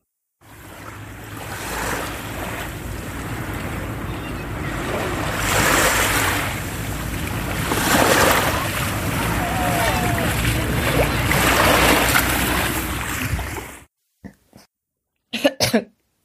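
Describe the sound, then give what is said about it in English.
Ocean waves wash and splash onto the shore in the Canary Islands in a loud, steady roar, swelling and easing in several surges, then fall silent before a couple of short coughs from someone who got a little sea water in them. “Sorry, I got a little bit of uh, sea water in me.”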